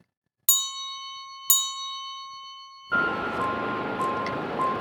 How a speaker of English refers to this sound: It was in the middle of the night around 12 a.m. Both husband and wife was having their supper in the kitchen. So, while both of them were eating peacefully, suddenly there was a doorbell ringing.